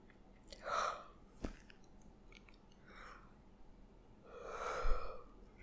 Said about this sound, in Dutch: Zo, ik moest even gapen. Mijn lichaam voelt denk ik dat het heel laat is. Of heel vroeg.